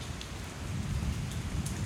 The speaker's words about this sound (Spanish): Pero entonces empieza a llover. Oh no, está lloviendo.